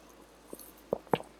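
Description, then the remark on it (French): Someone takes a quiet sip of a drink: a few soft, wet mouth and swallowing sounds in quick succession, faint overall, with no talking. “je vais prendre une gorgée parce que je parle vraiment trop vite.”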